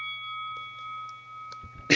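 A doorbell rings with a steady, sustained metallic tone that holds for the whole two seconds, clear, ending with a brief noisy knock.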